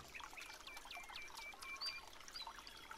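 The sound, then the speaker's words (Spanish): Small birds chirp and whistle in quick repeated notes over a steady, gentle babble of a running stream in a forest clearing on a summer morning, the whole scene soft with no voices. “Oyes el sonido de los pájaros, del agua en el arroyo.”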